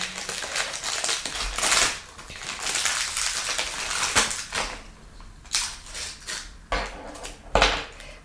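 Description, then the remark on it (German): A fortune cookie being unwrapped and cracked: steady crinkling of a plastic wrapper, then several sharp, crisp snaps and crunches spaced a second or so apart, with no talking. “Ja, dann such dir mal einen Glückskeks aus, nur noch drei Stück.”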